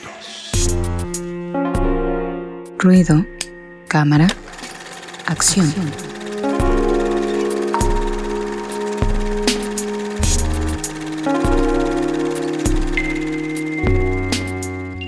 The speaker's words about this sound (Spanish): Así que vamos a la cortinilla y regresamos. Ruido de fondo MX en todas las redes sociales. Vamos a la cortinilla y regresamos en unos segundos.